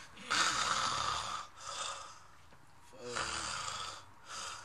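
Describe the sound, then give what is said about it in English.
A person imitates snoring with their voice: four raspy, breathy snore sounds in a steady rhythm, moderately loud, with short pauses between them and no talking. “Dude, but the movie was so good that me and my brother didn't even like acknowledge the snoring.”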